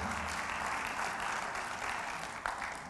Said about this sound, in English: I'm glad you're clapping because I'm trying to stay awake.